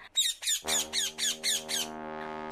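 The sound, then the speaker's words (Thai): A caged parrot, hung at the window of a small hut, squawks strangely in a rapid series of about seven harsh, raspy calls, loud, while a steady low drone rises underneath and lingers after the calls stop. “เขาได้นำนกแก้วใส่กรงแล้วก็ห้อยไว้ที่ริมหน้าต่างกระท่อมน้อยๆของเขา แล้วก็จัดแจงหาเมล็ดพันธุ์พืชให้กับนกแก้วนั้นกินเป็นอาหาร เช้าวันหนึ่ง ได้ยินเสียงนกแก้วร้องแปลก”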